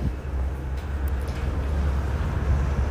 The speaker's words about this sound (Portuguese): E eu acabei de perceber que aqui tem um segundo problema, que são os carros passando.